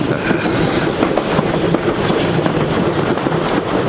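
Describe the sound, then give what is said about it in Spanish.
A train passing through a dark tunnel rumbles steadily and loudly for the whole stretch, a dense continuous roar with faint rhythmic clatter of wheels on rails and no voices. “El ferrocarril atraviesa un oscuro túnel.”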